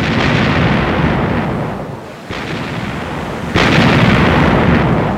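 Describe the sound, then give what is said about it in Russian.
Heavy distress cannon shots from a sinking ship boom out over a constant roaring noise of storm, two abrupt blasts that swell the sound and linger as a long rumble, with no voices. “Похоже, тонет корабль. Пушечными выстрелами он извещает о своем бедствии.”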